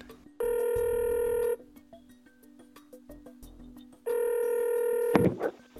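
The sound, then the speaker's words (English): A telephone call rings out twice, each ring a long steady electronic tone separated by a pause of near-silence, followed by a clatter as the call connects. “Let's call him up.”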